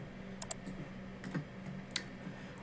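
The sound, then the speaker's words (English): A handful of soft computer keyboard key presses click in quick, irregular succession as the Control Shift K shortcut is tapped to open a key graph editor, against a faint steady hum with no voices. “So when we open up the key graph editor, which you can open by hitting Control Shift K on the keyboard,”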